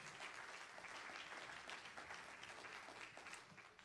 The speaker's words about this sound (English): Pastor is coming to uh, teach Bible study tonight. Let's clap our hands to the Lord as he comes to the pulpit.